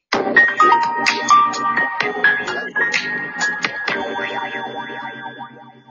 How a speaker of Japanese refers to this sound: あ、いや、まあ、なんか、ぜ、ぜ、軽快なトークをするにあたって、こう、なんか、やりづらい音楽が流れましたけども。